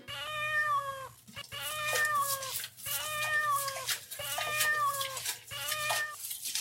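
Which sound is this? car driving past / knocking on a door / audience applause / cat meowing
cat meowing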